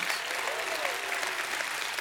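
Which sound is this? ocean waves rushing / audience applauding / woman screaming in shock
audience applauding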